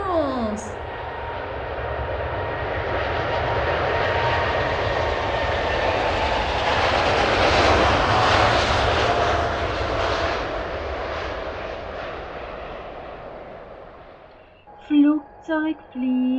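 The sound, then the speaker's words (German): A steady, powerful airplane engine roar builds and swells for over ten seconds as if during takeoff, a broad loud rumble that holds before fading, then a few short speech-like sounds follow. “Flugzeug fliegen, komm, wir wollen Flugzeug fliegen, Wolken da und hier, dadurch da fliegen wir.”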